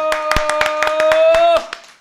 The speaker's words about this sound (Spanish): suelta el teléfono que lo vamos a despedir con un fuerte aplauso. Gracias.